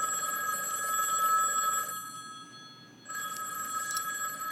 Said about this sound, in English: I haven't heard stock, that ringtone.